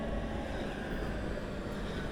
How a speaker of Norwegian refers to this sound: Så trekker vinden gjennom tunnelen, lystavla skifter til nå. T-banen sklir opp fra mørket, bremser. Dørene åpner seg.